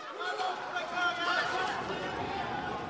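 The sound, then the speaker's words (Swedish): A tense outdoor crowd commotion as riot police with helmets and batons run along a footbridge toward the town centre at a crowd that scatters: many voices overlap in a steady hubbub while people run, with hurried movement and shouting mixed throughout at a constant level. “På ett filmklipp ser man hur flera kravallutrustade poliser springer på en gångbro mot centrum. Rakt mot en massa människor som skingras.”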